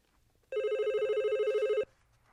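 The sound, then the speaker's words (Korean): A single electronic telephone ring, a bright warbling tone lasting just over a second, sounds loud against a quiet background, then cuts off abruptly. “저는 급하게 동네 공중전화를 찾았습니다.”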